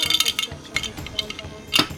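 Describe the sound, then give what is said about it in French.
Dice rattle and clatter across a hard tabletop, a quick run of sharp clicks, ending in a louder final tumble before settling, as a player rolls a damage die during a tabletop game. “tu peux jeter tes dés de dégâts, ton dé de dégâts du coup.”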